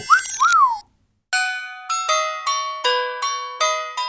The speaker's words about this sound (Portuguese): Harpas tambores, clarinetes e alguns sinos com o um bom e velho feitiço musical.